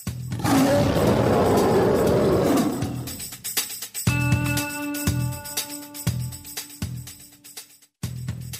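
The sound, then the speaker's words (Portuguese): A lion lets out one deep, loud roar lasting about two seconds, then falls silent before a steady, pulsing musical beat with sustained tones takes over. “Por isso que ruja o leão.”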